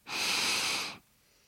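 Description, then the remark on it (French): A single deep breath drawn in, demonstrating a breathing exercise, a steady airy rush lasting just under a second before it cuts off into near silence. “Alors un petit truc, quand on a la voix qui tremble juste avant de rentrer là dans ce fameux grand méchant oral, on inspire.”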